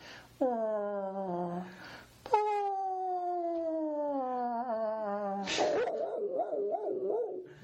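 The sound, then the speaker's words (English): A person's voice imitates a sad chicken with two long, drooping wails followed by a wavering, warbling cry, loud with no other talk. “Here's a sad chicken.”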